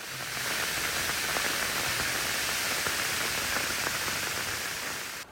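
Rainwater runoff forms a cascade rushing down the Morro da Oficina hillside in Petrópolis, in the mountain region of Rio, in a steady, dense hiss of falling and flowing water, holding an even loudness throughout, with no voices.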